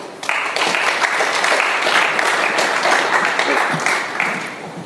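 An audience welcomes a speaker with steady applause, a dense wash of many hands clapping at once that starts abruptly and holds at a fairly loud, even level for several seconds before easing slightly near the end.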